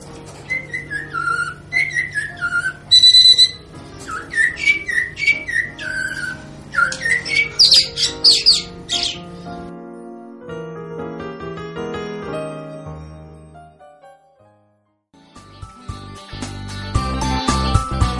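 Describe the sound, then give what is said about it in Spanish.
A blackbird up in a tree sings clear, fluty whistled phrases with rising and falling notes, loud, for about nine seconds before music takes over. “Un mirlo cantaba una linda canción como siempre.”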